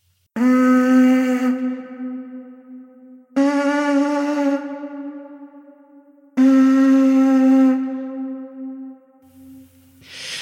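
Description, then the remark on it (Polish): Three long, steady horn-like blasts from a prehistoric conch shell, a mollusc shell about 20 cm long found in a cave in southern France, each lasting a few seconds with a breathy onset and a low, buzzing tone rich in overtones, separated by brief pauses. “To, co słyszeliście, to przedmiot znaleziony w pewnej jaskini na południu Francji.”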